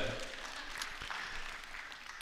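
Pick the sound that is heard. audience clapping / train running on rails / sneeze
audience clapping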